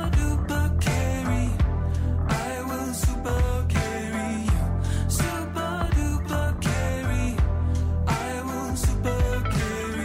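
A song by a Swedish female singer-songwriter and performer based in Copenhagen plays loud for the whole stretch, with a steady, punchy drum beat driving layered melodic instruments, sung over a full mix. Nobody talks over it.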